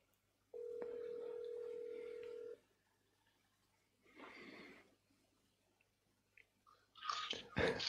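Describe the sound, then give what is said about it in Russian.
A single steady ringback tone lasting about two seconds as a phone call is placed during a live broadcast to a contact in Latvia, followed by muffled rustling and a louder burst of crackly line noise near the end. “Звоню.”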